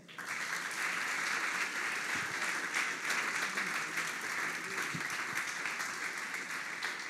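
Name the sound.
audience applauding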